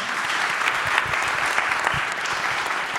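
Sustained audience applause, a dense steady patter of many hands clapping at an even loudness throughout, with no voices standing out above it.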